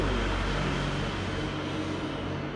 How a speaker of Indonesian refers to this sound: ada truk ada truk